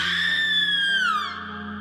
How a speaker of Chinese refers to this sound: 可当他 把女孩的裙子掀起来的时候，睡衣的那个裙子， 嗯， 就听见门外大概在楼道里传来了一声女人的尖叫。